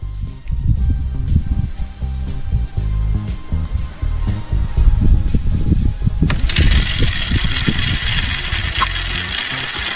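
An automatic animal feeder's motor churns and rumbles, then about two-thirds through a loud, steady hissing rattle bursts in as it starts scattering seed, continuing to the end.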